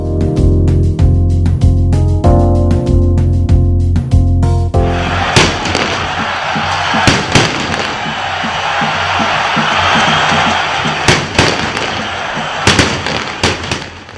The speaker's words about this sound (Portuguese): A confusão causada por parte da torcida do Santos no jogo contra o Corinthians na noite de quarta-feira, quando foram lançados ao gramado rojões, bombas, sinalizadores e outros objetos, teve uma dura consequência.